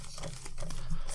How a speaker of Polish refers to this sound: Ja tylko na laptopie piszę w notatniku